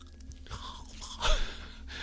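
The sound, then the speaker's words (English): Wet, smacking open-mouthed chewing sounds, irregular and messy, with a louder burst near the middle; no one speaks. “If you're listening to us right now, you don't care about the sound of the chewing.”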